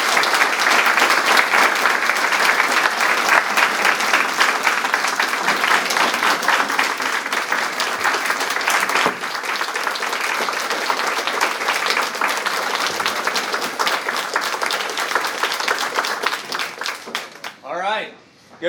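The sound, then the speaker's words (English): A church audience breaks into sustained applause, clapping for God, a dense, steady roar of many hands clapping for about seventeen seconds before it thins and fades, with a voice emerging at the very end. “So let's clap for God.”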